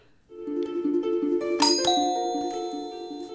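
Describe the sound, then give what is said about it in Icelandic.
A harp plays a short run of plucked notes that ring and overlap, with a few bright, higher shimmering tones struck partway through. Moderately loud, with no voices. “Mikið rétt, það er harpa.”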